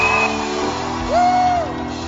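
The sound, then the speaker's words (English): A church audience shouts to the Lord together in a loud, sustained burst, with one voice rising in a high, drawn-out whoop over the crowd noise for about a second. “Give the Lord a bigger shout.”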